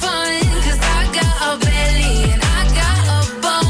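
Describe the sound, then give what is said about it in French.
The finished version of a loud, polished pop song plays, with booming bass notes that slide downward every second or so beneath bright, layered synths and melodic lines filling the whole mix. “Le 10 janvier, le titre est fait, elle le poste ensuite sur TikTok encore. Et là voilà ce que ça donne quand c'est fini.”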